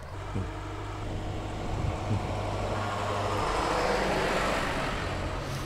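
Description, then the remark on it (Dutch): A tractor rumbles past, its low, throbbing diesel engine swelling louder in the middle of its pass and then easing slightly, with a steady wash of road noise and no voices. “Um, die gaan misschien hierin moeten, die tractor.”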